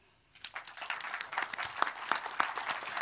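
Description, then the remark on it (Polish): An audience breaks into applause for the panelists, a dense patter of many hands clapping that swells quickly after a brief quiet start and holds steady, with a few sharper claps standing out. “Dla panelistów oklaski.”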